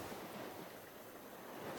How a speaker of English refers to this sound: W would you like uh, some sea sounds?